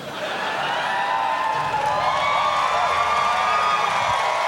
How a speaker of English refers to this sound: Hey now, don't applaud too loud.